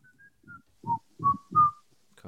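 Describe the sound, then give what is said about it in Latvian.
A person whistles a short tune, several clear rising notes with breathy, hummed undertones between them, ending with a brief burst of voice. “acis vilpojā. Kā tas labi dzirdams.”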